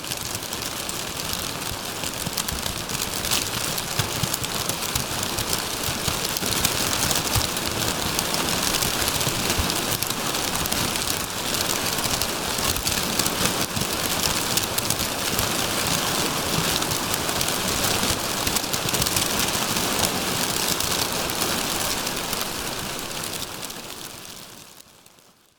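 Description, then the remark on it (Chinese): A sound installation of kraft paper bags, each fitted with its own motor that inflates and deflates it so the bags expand and contract, gives off a dense, unbroken rustling that resembles rain pattering on leaves, with a faint steady hum underneath. The hiss holds even throughout, then fades away at the end. “里面个别装有独立充气、放气的马达，透过纸袋扩张与收缩，发出窸窸窣窣的声响，让人乍听之下还以为是在树林中感受雨水敲打树叶的沙沙雨声。”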